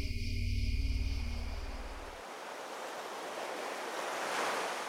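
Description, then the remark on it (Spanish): Ocean waves wash steadily onto a beach, a broad hiss of surf that swells and recedes. A low engine-like rumble underneath fades out after the first couple of seconds. “Al mismo tiempo, en alguna playa cercana, Javier Caro camina junto a la laboratorista por la orilla del mar.”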